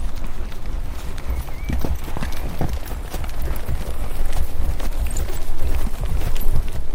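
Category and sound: animal, horse hooves clip-clopping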